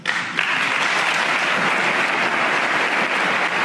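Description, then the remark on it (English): Steady applause in a played recording of a 2014 speech by Poroshenko asking for lethal weapons for Ukraine: a dense crackle of many hands clapping at once that holds at an even, fairly loud level throughout, with no voices standing out. “Why do they clap at all this stuff if they're not going to follow through?”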